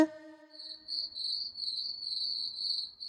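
A cricket chirps steadily in a continuous high-pitched trill, fairly close and clear, after a brief fading tonal note at the start, with faint low background rustle.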